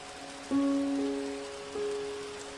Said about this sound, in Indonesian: Kini hitam langit hanya berhias rintik-rintik Sekumpulan arus kecil mulai mengalir pelan, membasahi permukaan tanah-tanah gersang, menghapus dahaga sungai-sungai yang kering dan hampa.